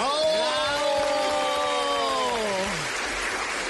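A studio audience applauds in a steady, dense patter, with a sustained tonal whoop that slides downward over the clapping before trailing off, the applause continuing underneath.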